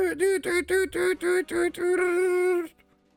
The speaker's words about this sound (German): In der anderen Ecke hinten steht noch ein Faxgerät, das ja, du oh in dem Moment auch hörst.